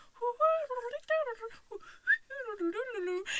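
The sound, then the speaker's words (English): A little boy imitates bird-like whistling with a run of warbling, sliding pitched chirps, fairly loud, broken by brief pauses. “The little boy, and he's like whistling.”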